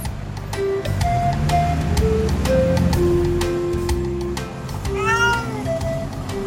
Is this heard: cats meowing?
yes